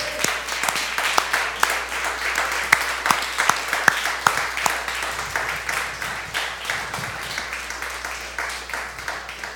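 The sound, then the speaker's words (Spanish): A church audience applauds on a morning celebrating the Lord's resurrection, a dense, sustained patter of many hands clapping, with sharper individual claps standing out and a faint low hum underneath. “Puedes dar un aplauso en esta mañana.”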